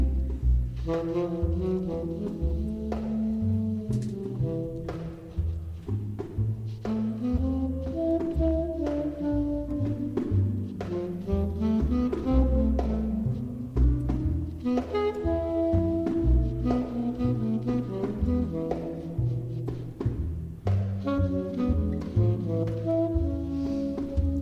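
A woman sings over gently strummed and plucked guitar, the music close and steady at a moderate level for the whole stretch, with no talking.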